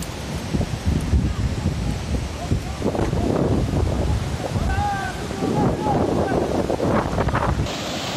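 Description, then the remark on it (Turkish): A flash flood rushes down the Şıkpınar Vaskit stream about half an hour after heavy rain, in a loud, steady roar that barely changes from start to finish, with brief faint voices surfacing under the churning noise. “Az önce yağan yağmurun yaklaşık yarım saat sonrasında Şıkpınar Vaskit çayına gelen sel.”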